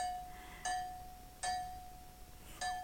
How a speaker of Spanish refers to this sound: Pero qué mal. Qué mal suena la campana, ¿no?